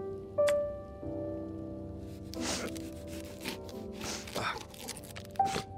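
Crisp crunching of an onion being cut or peeled, a few irregular crackly bursts spaced a second or two apart, over a faint steady background hum.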